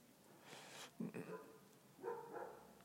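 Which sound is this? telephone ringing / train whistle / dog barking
dog barking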